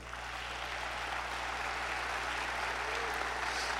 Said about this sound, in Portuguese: Temos um pai. Se você tem um pai, dá um aplauso ao Senhor.